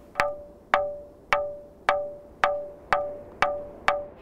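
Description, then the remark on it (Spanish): A ringing rock, called the bell stone by locals, is struck eight times at a steady pace, each sharp strike giving a bright, metallic bell-like tone that rings briefly and decays before the next hit. “El sonido con el cual nosotros lo asociamos es casi metálico, ¿no? De ahí que uno pudiera, o de ahí que los lugareños le llamen piedra de la campana”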